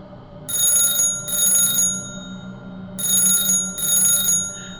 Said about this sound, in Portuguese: O telefone de casa tocou ainda essa noite. Na altura não havia telemóveis.